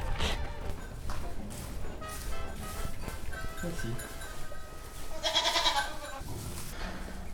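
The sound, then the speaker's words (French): Goats and sheep bleat repeatedly in overlapping, wavering calls, with a louder, higher-pitched bleat standing out near the end amid a busy farmyard background. “Euh, bah, les chèvres et brebis, en fait, c'est, j'allais dire, c'est pareil que pour les vaches, sauf que c'est des petits ruminants.”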